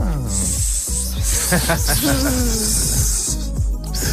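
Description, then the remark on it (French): A snake's hiss sound effect runs steadily for about four seconds, loud, layered over a busy tonal backdrop of music and faint voices. “Quelle langue de vipère hein.”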